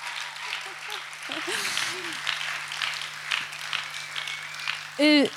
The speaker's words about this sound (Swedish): han behöver definitivt en applåd. Han står längst bak.